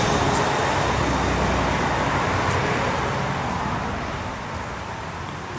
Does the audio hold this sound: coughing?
no